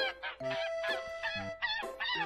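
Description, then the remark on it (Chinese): A flock of geese preparing to migrate, lined up in formation on a hillside, honking, with many short, nasal calls overlapping in a busy, continuous chorus. There is no talking, just the steady, fairly loud jumble of honks. “那些准备迁徙的鹅已经在山坡上排好了队形。”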